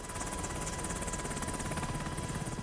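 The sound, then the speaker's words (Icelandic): A US military Black Hawk helicopter drones steadily as it flies from Jalalabad, Afghanistan, to Abbottabad, Pakistan, on a moonless night, its rotor blades chopping in a fast, even rhythm over a loud, constant engine roar with no voices. “Það tók Black Hawk þyrllur bandaríska hersins 90 mínútur að fljúa frá Jalalabad í Afganistan til Abbottabad í Pakistan tungskins lausa aðfaranótt annars mæ 2011.”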